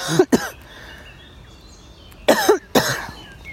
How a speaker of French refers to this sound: pardon, je vais tousser.